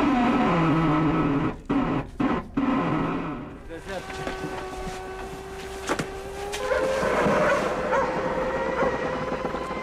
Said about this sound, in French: Les grincements stridents et le martèlement intense nous donnent la sensation que la pression de la glace va déchirer la coque de Tara.